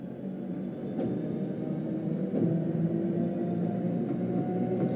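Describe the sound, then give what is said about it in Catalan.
A steady, droning rumble heard from inside a Jungfrau railway train in the Swiss Alps, with a low mechanical hum, faint tonal whine and occasional soft clicks, continuous and fairly loud throughout, with no voices. “això és, això és, els, els, això és com sona el, el tren de la Junfrau i, i que se sent des de dins.”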